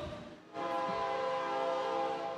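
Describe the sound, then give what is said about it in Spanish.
A passing train sounds its horn, a sustained, steady chord that swells in after a brief rumble and holds loudly to the end, with no talking over it. “El tren, creo que es el tren.”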